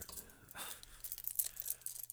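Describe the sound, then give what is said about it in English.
Keys on a keyring with a bottle opener jangle briefly as they are handed back after opening a beer, a quick flurry of light metallic clinks and rustles lasting a couple of seconds, fairly quiet against a low background hum, with no one speaking. “Here's your keys back.”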